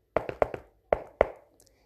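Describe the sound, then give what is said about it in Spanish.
Knocking on the wooden door of a house: a quick run of four raps, a short pause, then two more firm knocks, clear, with no other sound around them. “Llamó a la puerta de la casa de la abuela”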